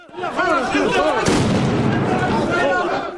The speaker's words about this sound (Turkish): El Aksa Camii'nde İsrail güvenlik güçleriyle Filistinler arasında çatışma çıktı. İsrail polisi taş ve fişek atan göstericilere ses bombasıyla müdahale etti.